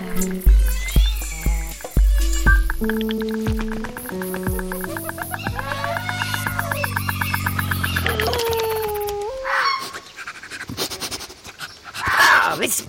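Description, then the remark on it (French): Short, high-pitched cries of a red fox, a few sharp yelps coming in bursts near the end, after a stretch of steady tonal sounds and soft pulsing. No one speaks. “Oh, je sais, c'est le renard.”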